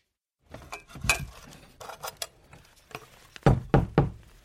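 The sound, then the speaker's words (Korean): Knocking on a bedroom door, fairly loud: scattered irregular raps at first, then a firmer run of three quick knocks at the end. No voices. “제 방문을 두드리는 것조차 귀찮아했다.”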